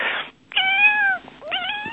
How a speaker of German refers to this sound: Oh nein, ist das süß. Ein Kätzchen.